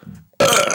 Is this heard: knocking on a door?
no